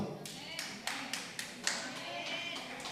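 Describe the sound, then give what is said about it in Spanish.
An audience claps in a steady rhythm, sharp bright claps repeating about every quarter second over a dense crowd wash, with a murmur of voices underneath. “Dos aplausos, tres aplausos, cuatro aplausos, allá cinco aplausos, seis aplausos.”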